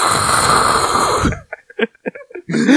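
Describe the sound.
A person imitates a huge gasping breath like a blue whale's, the kind taken now and then while cycling: one loud, rough, airy intake lasting over a second, followed by short choppy bursts that sound like laughter.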